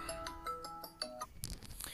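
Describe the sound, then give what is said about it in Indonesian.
A phone ringtone for an incoming group call from friends plays a quick melodic run of bright electronic notes, fairly faint, then cuts off into a brief burst of rustling, handling noise. No one speaks. “iya gue ditelepon nanti gue lanjut ya bentar bentar bentar bentar, bentar.”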